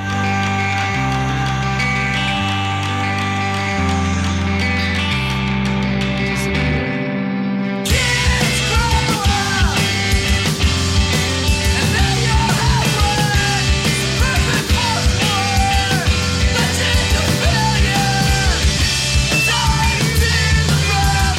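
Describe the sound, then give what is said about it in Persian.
Loud emo rock music: a sustained, droning intro gives way after a few seconds to dense, crashing guitars and drums with raw, screamed vocals pushing through the full band. “و همینطور این موزیسین ها صدای آوازی رو تو موسیقیشون به کار گرفتن که باز هم متناسب با صدای گیتارها و ملودی هاشون فریادی پر از صداقت، شور و احساس بود.”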